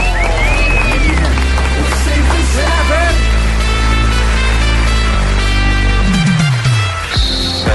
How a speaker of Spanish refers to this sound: Así que recibamos con un fuerte aplauso al doctor Fernando Londoño.